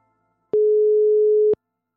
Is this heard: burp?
no